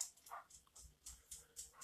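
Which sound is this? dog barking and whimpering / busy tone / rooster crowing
dog barking and whimpering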